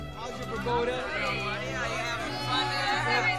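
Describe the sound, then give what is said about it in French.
A lively party crowd of girls from the Chevels car club chatters and laughs continuously, many overlapping voices forming a steady, fairly loud babble with no single speaker standing out, added into the mix of a record made in a small Los Angeles studio. “Les bruits de fiesta des filles du club automobile Chevels étant rajoutés au mixage.”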